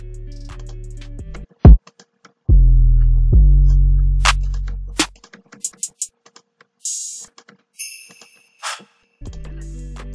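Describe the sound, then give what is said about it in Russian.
A sparse hip-hop drum pattern for a beat, with no melody: deep, booming 808 kicks that ring out and slide, a sharp snare crack, and scattered crisp hi-hat ticks, loud. “А, так звучит ударка без мелодии.”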